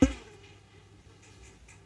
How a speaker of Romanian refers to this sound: Am o muscă pe microfon. Dacă s-a auzit, s-a auzit. asta e, foarte tare. S-a auzit musca.